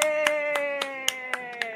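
A quick, even run of about seven sharp hand claps on a soundtrack, applauding a trivia-game prize winner named the bar's employee of the month, spaced roughly a quarter second apart, ringing over a steady sustained tone that drifts slightly lower in pitch.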